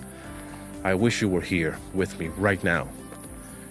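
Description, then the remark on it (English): Cicadas buzz in a steady, high-pitched drone that runs unbroken through the whole clip, sitting faintly beneath a person speaking; recorded in summer at Karathona Beach, Nafplio, Greece. “You can hear the chicharras in the background here.”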